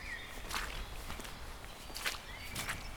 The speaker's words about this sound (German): So erreichten wir zunächst ein abgelegenes Dorf und schritten ab dort auf einer etwas matschigen Forststraße entlang.